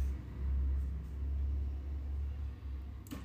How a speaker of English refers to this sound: Sorry, there's traffic. I live really close to one of the places where people like to ride four wheelers and stuff.